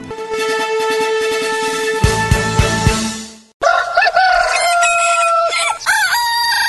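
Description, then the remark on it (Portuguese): A rooster crows loudly in the second half, a drawn-out cock-a-doodle-doo ending on a rising call, after a sustained harmonic tone broken by a few deep thumps, opening the Cantar do Galo morning show on the radio station RCM. “Cantar do Galo.”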